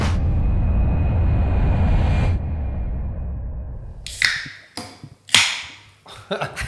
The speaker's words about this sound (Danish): Det er en god, øh, det er en god lyd lige at starte på. Der åbner du lige din morgenbajer. Ja, så starter alle dage, gør de ikke? du har lige åbnet en øh, Coke Zero.